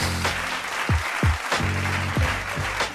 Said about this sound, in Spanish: Mi gente, desde toda Latinoamérica, yo quiero que ustedes me den un fuerte aplauso